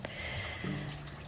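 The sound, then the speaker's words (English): A soft, steady trickle of water from a small fountain outdoors in a garden, faint and continuous, with a few light drips and a low hum underneath; no one speaks. “And I have my water fountain going.”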